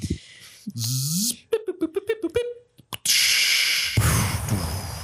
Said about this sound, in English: That's the sound of the mail bag.